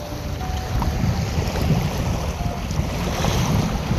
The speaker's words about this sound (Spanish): Quisiera que escucharas este sonido allá donde estás con tus ojos cerrados. Quisiera pedirte desde el corazón que empezaras a escuchar las olas del mar.